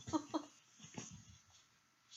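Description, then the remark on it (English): A dog nibbles and tugs at a person's hair, giving two quick snorting grunts followed by softer snuffling and breathy mouth noises, fairly quiet overall. “Do not bite my hair, dog.”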